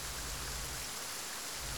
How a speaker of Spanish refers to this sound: La lluvia no concedió ni un solo instante para ver el cielo negro.